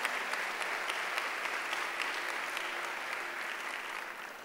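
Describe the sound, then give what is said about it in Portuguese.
An audience gives a round of applause for Jesus during a sermon, a dense wash of many hands clapping at once, sustained and even throughout with no voices standing out. “Pode dar uma salva de palmas para Jesus.”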